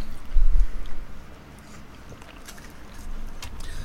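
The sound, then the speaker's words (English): Someone chewing a piece of orange-flavoured chocolate infused with orange oil, with soft, irregular crackly mouth clicks over a low background rumble; no one speaks. “What's your thoughts as you munch down on that?”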